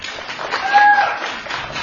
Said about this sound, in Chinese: 现在呢，让我们用最热烈的掌声来请出我们今天下午的主角——国际钢琴巨星、联合国和平大使…先生。